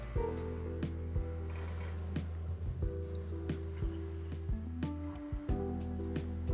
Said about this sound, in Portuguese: Pausa para um gole d'água.